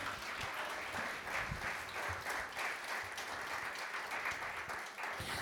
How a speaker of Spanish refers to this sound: Dale un aplauso a Dios.